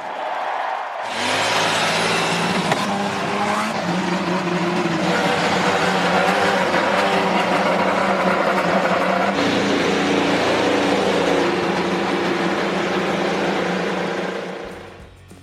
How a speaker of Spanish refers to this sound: Drivers, start your engine, que realmente te motiva, ¿no? Y que justamente empiezan los motores a, aullar y todo, em, todo empieza a fluir, ¿no? la, adrenalina principalmente.